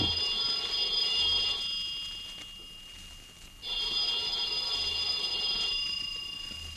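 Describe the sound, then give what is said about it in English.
A telephone rings twice at about noon, a call from the clerk downstairs, left unanswered, in a steady on-off cadence, each bright, high trilling ring lasting about two seconds with a pause between. No one speaks. “I let the phone ring.”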